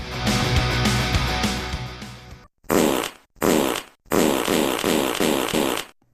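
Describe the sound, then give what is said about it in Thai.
A long, loud, rumbling fart, followed after brief pauses by three more sputtering bursts, the last one drawn out. No one speaks. “มีลมต้องรีบหายไม่เช่นนั้น เสี่ยงเป็นมะเร็งลำไส้”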